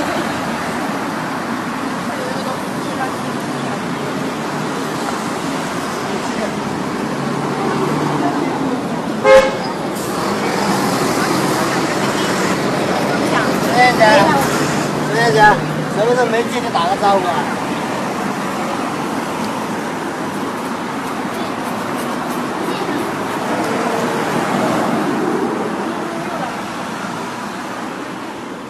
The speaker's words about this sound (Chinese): 菜市场没有去成，但是录到了厦门的街道的一些声音。但是录街道声音可能没有什么特别的地方，不过你仔细听，你可以听出那种味道。听听看厦门的街道有什么样的味道呢？